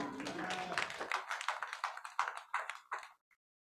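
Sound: clapping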